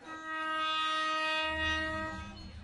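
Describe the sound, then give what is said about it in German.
A train blares a long, steady horn, then the deep rumble of its wheels and cars rolling past swells in beneath it as it passes centimetres from market stalls set up along the tracks. No one speaks. “Und dass der Zug nur Zentimeter an den Auslagen vorbeifährt, scheint die Kunden nicht zu stören.”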